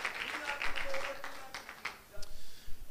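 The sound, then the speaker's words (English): An audience claps their hands unto the Lord at the end of a prayer, in a dense, scattered burst of applause, with a few voices calling out over the clapping. “And everybody say, In Jesus' name, clap your hands unto the Lord, and you may be seated.”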